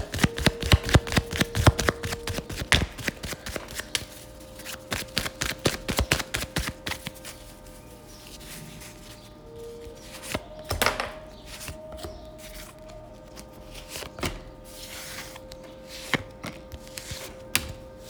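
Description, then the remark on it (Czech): Tarot cards being shuffled during a tarot reading, a rapid burst of crisp flicking and riffling that thins into occasional soft slaps and taps, with a faint steady hum behind and no talking. “A já už se dívám na vaše fotky, míchám u toho karty a my se spolu podíváme, co nám Tarot poví o vás dvou.”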